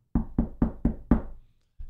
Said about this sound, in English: got that knock on the door that all the communists do.